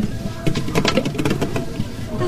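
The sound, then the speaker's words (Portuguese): A badly closed water tap drips in quick, irregular succession, a steady patter of small splashes at a moderate level, with no one speaking. “É a minha torneira. O que é que está a acontecer? Está a é pingar.”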